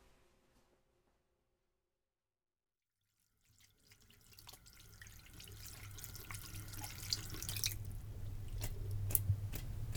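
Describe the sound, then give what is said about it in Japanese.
After a few seconds of near silence, a tap turns on and water runs steadily into a sink, with soft splashing and squishy rubbing of hands under the stream, fairly loud, as hands are washed after coming home. “手洗いを済ませ、まず取り掛かることは、朝に洗った食器の片付け。”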